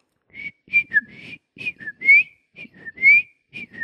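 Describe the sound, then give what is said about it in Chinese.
A person whistles an imitation of the call of the bamboo partridge, a species endemic to Taiwan: a run of short, high, sliding notes in quick repeated phrases, fairly loud, with breathy puffs underneath and no talking. “好，那 Gigo 乖的叫声，吹口哨大概这样”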